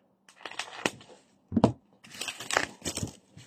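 A bubble-wrapped book, a copy of Taiyō Matsumoto's manga Sunny, being unwrapped: irregular bursts of crinkling and rustling plastic, with a sharper crunch partway through and brief pauses between handling sounds. No one speaks.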